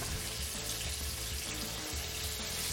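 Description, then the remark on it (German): Chicken seasoned with salt and pepper on both sides, carefully laid into hot oil to brown, a steady, crackling sizzle that holds an even loudness throughout, with no one talking. “Wir legen jetzt vorsichtig die Poulet in heißes Öl.”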